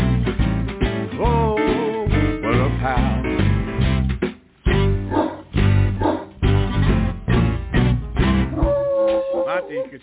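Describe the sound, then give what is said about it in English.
A dog barks and howls repeatedly along with a song, its drawn-out, wavering cries mixing with a human voice singing over it, briefly breaking off midway before continuing. “Stop barking now. The song's over.”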